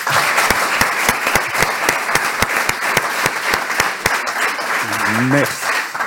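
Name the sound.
audience applause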